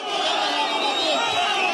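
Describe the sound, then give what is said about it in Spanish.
A crowd at a show-of-hands municipal election in Chiapas, Mexico, shouting and yelling all at once as a clash breaks out, a loud, continuous wall of overlapping voices that stays intense and agitated throughout the short stretch. “Pero cuando dos candidatos quedaron en la recta final, Iniciaron los gritos, luego los golpes.”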